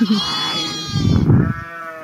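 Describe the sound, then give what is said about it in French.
Sheep bleating in a sheepfold, a wavering harmonic bleat followed by a second overlapping call, with rustling and shuffling of animals underneath. “Voilà, donc euh, pour les nouvelles de la bergerie.”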